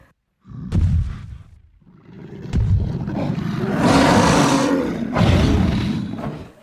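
A deep, rumbling cave bear roar swells in loud bursts, with a growling first cry followed by a longer, rougher bellow that surges twice before fading; no one speaks.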